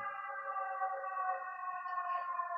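An emergency vehicle siren sounds, a steady, sustained tonal wail that holds without pause for a few seconds, fairly faint, with no one talking.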